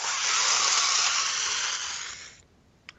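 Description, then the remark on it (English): A voice imitates the vacuum-like sucking noise of brass machinery on both sides of a room going haywire after a capacitor jar is rammed into a hole: a long, loud breathy hiss lasting over two seconds, trailing off into quiet, followed by a tiny click near the end. “you hear this kind of sucking up noise as uh, the the brass machinery on both sides of the room just, starts going haywire, just super super fast.”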